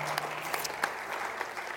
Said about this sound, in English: You can clap for yourself if you'd like to do that.